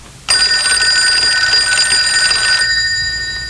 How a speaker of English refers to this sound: answer your phone.